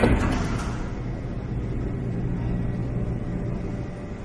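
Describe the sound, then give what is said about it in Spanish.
A lift's sliding door opens in the hallway of a residence, in front of a man standing before it, with a short brighter swish at the start, then a steady low mechanical hum and rumble carries on evenly, with no voices. “El ascensor se abre frente a él, de pie ante la puerta abierta.”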